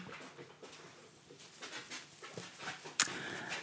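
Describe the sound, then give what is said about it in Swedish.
A dog that has just come into the room pants in quick, breathy bursts, with a sharp click or jingle near the end. No one speaks. “Oj, nu kommer min hund in här också.”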